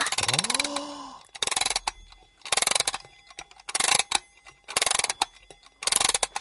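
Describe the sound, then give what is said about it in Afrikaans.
A wind-up alarm clock, wound with a key-like arm on its back, ticking, heard as dense bursts of crisp mechanical clicks repeating in a steady rhythm about once a second, with a short rising vocal exclamation at the very start. “Jy sien aan die agterkant van die wekker, hierso?”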